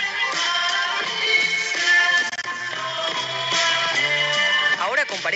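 A Latin pop song from 1989 plays steadily and fairly loud, with a full band, a regular beat and a melodic lead line running throughout, and no talking over it.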